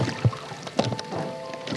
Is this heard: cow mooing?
no